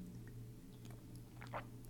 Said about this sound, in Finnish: hörppään kaffettia.